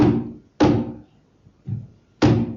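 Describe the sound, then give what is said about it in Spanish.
Four heavy wooden thunks as a coffin lid is put back in its place and closed; each deep, resonant blow rings briefly, irregularly spaced, with a softer third knock before a final loud one. “Volvimos la tapa a su sitio.”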